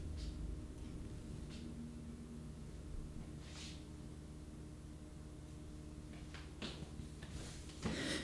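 A Fuji camera is switched on and handled: scattered soft clicks and brief rustling bumps over a steady low hum, with a slightly louder clatter near the end. Nobody speaks.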